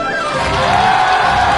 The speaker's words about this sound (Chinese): 这是本山老师带着他的徒弟赵家班，在我们江苏卫视春节联欢晚会的舞台上亮相了，我们掌声热烈一点